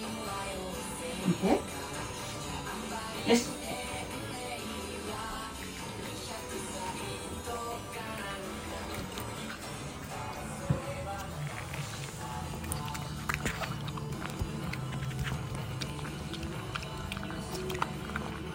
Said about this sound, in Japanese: キッチンで愛犬がお昼ご飯を食べる時の音ですなるほどねなんか確かにあのワンちゃんの咀嚼音って意外と聞いたことないかもしっかりこうやって 確かに良かったですね